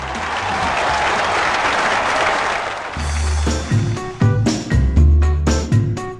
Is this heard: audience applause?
yes